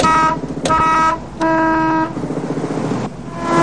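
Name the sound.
car horn honking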